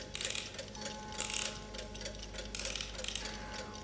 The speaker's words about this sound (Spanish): ¿Desea el señor la llave? Naturalmente. Debo dar cuerda todos los días a mis relojes.